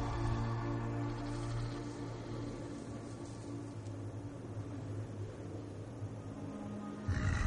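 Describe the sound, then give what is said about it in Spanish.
A black wolf growls in a forest at night, a low, rumbling growl that drones on steadily for several seconds, deep and menacing, over a faint airy background hiss, with a slight shift in tone right at the end. “Un lobo negro aparece a lo lejos y Valerie le sonríe.”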